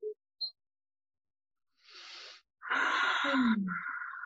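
A slow, airy breath drawn in as a calming breathing exercise, a brief pause, then a longer and louder exhale with a slight sighing, voiced edge.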